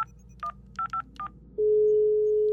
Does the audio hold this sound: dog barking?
no